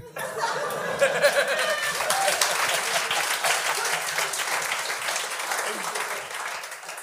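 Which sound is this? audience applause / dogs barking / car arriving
audience applause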